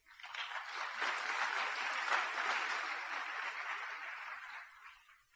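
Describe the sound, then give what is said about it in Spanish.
A sustained burst of audience applause, dense and steady for about five seconds before tapering off, with no voices over it. “fuerte aplauso mi amigo”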